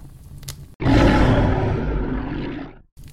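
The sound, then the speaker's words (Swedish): A bear lets out one long, loud, rumbling roar, holding steady for about two seconds before cutting off abruptly. “Sen vände han sig om mot jättekvinnan och gav ifrån sig ett förfärligt rytande.”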